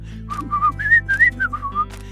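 A person art-whistles a quick, bright melody of short gliding notes, some warbling in rapid trills like a bird, clear with no talking.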